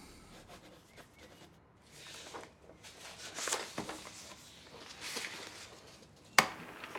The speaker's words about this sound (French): Le feu souffle, craque, pique, les pas croustillent dans la neige